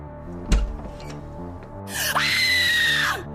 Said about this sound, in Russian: я услышал такой крик ужаса, который никогда не сотрясал улицы нашего города. Жена увидела меня и упала без чувств, без сил.